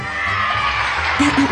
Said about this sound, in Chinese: 台下的各位父老乡亲，鼓掌！